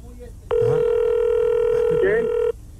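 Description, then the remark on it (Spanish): A telephone rings for an incoming long-distance call: one steady, buzzy electronic tone held for about two seconds at a constant pitch, loud over faint background voices. “Que no, tenemos llamada de larga distancia.”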